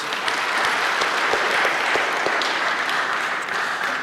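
An audience applauds steadily for about four seconds, many hands clapping into a dense, even wash of sound with crisp individual claps popping out now and then, holding a fairly constant loudness throughout.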